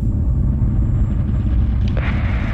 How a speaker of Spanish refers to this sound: El avión volvió a temblar esta vez con más fuerza.